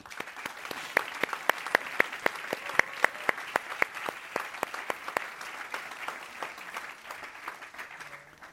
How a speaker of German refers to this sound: Ein großer Applaus. Es sind da noch ein paar mehr. Wirklich ein großer Applaus.